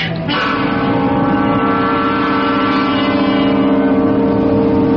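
Church bells ring loud on a Sunday morning, their overlapping tones blending into a continuous shimmering hum that holds steady for several seconds with no voices.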